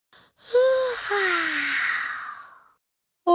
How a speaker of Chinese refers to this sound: 唉，哈欠云一边打着哈欠，一边带着它们飞到了池塘边。青蛙、蝴蝶和鹅宝宝也开始打哈欠了。